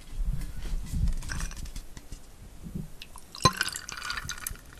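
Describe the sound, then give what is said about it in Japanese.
Tonic water pours into a glass already holding gin, filled up to a marked line, with a steady, bubbly fizzing and gurgling, a sharp clink partway through, and crackling carbonation continuing afterward. No one speaks. “って上にも線が引いてあるのでそこまでトニックウォーターを入れてみようと思います いい音でしょこれ入れてみるわ”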